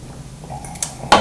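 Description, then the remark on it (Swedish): A quiet wet sip of beer, taken while talking about sport, with small liquid clicks and slurping, ending in a sharper wet smack or gulp at the end; no talking. “så smidigt att prata idrott och sen dricka en öl samtidigt.”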